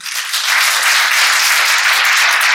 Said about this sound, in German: Lass uns nochmal für die Zuschauer klatschen heute Morgen.